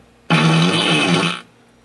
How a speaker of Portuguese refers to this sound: Esse foi os peido do zoeiro.